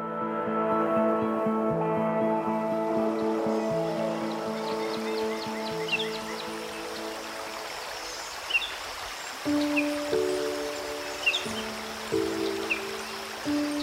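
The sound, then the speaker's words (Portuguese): A steady wash of flowing water from the Graça river runs throughout, beneath sustained low musical tones that shift in pitch, with a few faint bird chirps scattered over the top. “Clara trouxe o senhor gatineiro até a beira do rio Graça e deixou ele renovando o tanque de água.”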